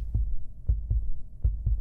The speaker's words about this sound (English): It's not just a heartbeat, it's your baby's heartbeat